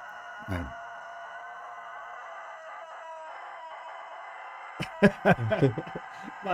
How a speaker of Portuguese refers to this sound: seu galo é maravilhoso, bicho. Tá cantando aqui.